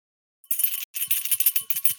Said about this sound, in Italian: Il campanello